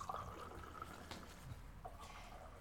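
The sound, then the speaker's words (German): Water is poured steadily into a glass for a couple of seconds, a soft, continuous trickling with no one speaking. “Dürfen wir hier direkt mal Platz nehmen und uns ein Wasser hm, eingießen?”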